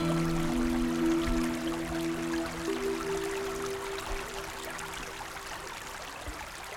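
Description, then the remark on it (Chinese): Wind rushes steadily through forest trees in the Changbai Mountains in a continuous, surf-like hiss, with a low droning hum underneath during the first few seconds. No one speaks. “我第一次发现，风吹过树林的声音有点像大海的声音。”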